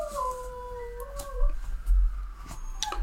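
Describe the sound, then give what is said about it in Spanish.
Dogs howl together in response to a siren, in long, wavering overlapping tones, one pitched above the other, sliding gently over a low background rumble. A few faint sharp clicks, and no one speaks. “Mis perros se ponen así cada vez que sienten una sirena.”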